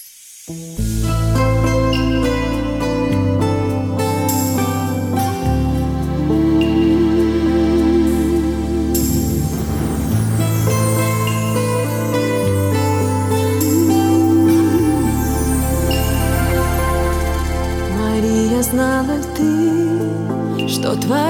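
The instrumental intro of a song newly recorded by a group of friends from Israel plays loud and full, with sustained layered chords and a deep bass line shifting every few seconds, building steadily with no singing yet.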